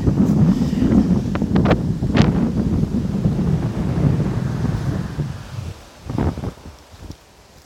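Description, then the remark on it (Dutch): Heavy wind buffets the microphone outdoors, a constant low roaring rumble with sharp gusty pops and bursts, easing somewhat toward the end with a couple of brief thumps. “Volgens mij waait het echt onwijs hard.”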